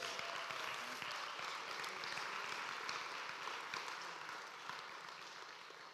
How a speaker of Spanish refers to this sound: Denle un aplauso al video y al equipo.